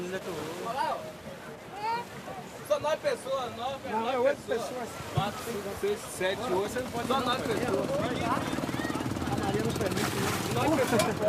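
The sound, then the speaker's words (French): Voices chatter over a steady engine drone and rushing wash aboard a motorboat, one of the boats going to load baskets of flowers, moving across water in Bahia, Brazil; the motor hum grows stronger and more constant toward the end. “Voilà, on a réussi à monter sur un des bateaux.”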